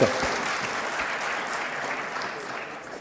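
An audience applauds steadily, a dense wash of many hands clapping at an even level for a few seconds, fading slightly toward the end.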